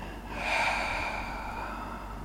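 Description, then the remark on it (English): A single deep, audible exhale in a grounding breathing exercise, a breathy rush of air that swells quickly and then trails off slowly, with no talking. “And again, an audible exhale, letting it out.”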